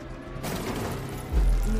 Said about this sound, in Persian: نه نه نه زلزله نبود انگار یه ماشین کوبیده بود تو در انبار بعدش هم سر و صدای تیراندازی